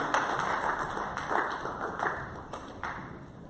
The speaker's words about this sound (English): Clap your hands together, together for the Lord